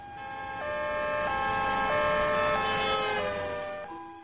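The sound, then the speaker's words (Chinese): An ambulance siren wails in a steady two-tone pattern, alternating between a higher and lower pitch several times, loud and clear with a faint traffic rumble underneath and no talking. “赶赶紧叫救护车呀！”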